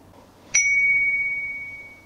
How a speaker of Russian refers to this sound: После того, как устройство соединилось с весами, раздается звуковой сигнал на смартфоне. Естественно, сначала нужно включить весы, потом запустить приложение.